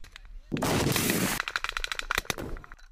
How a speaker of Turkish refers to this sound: 29 Ekim'deki saldırıda Hamas üyeleri sınıra yakın bir noktada tünelden çıktı. Çalılıklar arasında ilerledi. İsrail güçlerine ateş açtı.